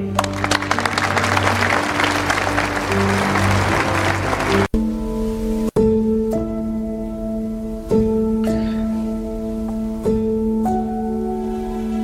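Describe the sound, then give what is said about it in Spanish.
An audience in Paris claps for the owner's daughter in a dense, steady burst of applause for about five seconds, then it cuts off and gentle, sustained piano-like notes play on their own. “Damas y caballeros, queridos amigos, demos un caluroso aplauso a la encantadora hija de su propietario, Juliette Pellegrini.”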